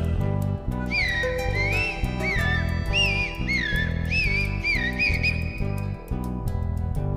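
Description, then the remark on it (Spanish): A whistled imitation of zorzal thrush song within a song about birds: bright, warbling phrases that rise and fall, repeated several times and played loudly over a steady, rhythmic musical accompaniment. “canta el zorzal.”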